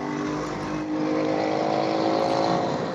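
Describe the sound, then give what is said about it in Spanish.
A motorcycle passes by with a loud, steady engine drone and buzzing harmonics that hold strong for a few seconds, no voices. “Cuidado, estamos oyendo ahí una motocicleta pasar.”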